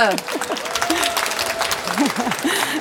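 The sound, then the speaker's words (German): An audience claps steadily to welcome two speakers, a dense patter of many hands, with a few voices whooping and cheering over the top. “Einen donnernden Applaus oh. bitte.”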